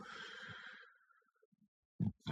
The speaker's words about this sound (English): Whew. Ah, I'm burping up some beer.